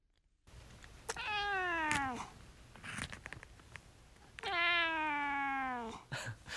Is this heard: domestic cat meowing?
yes